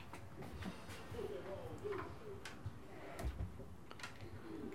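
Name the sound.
door being shut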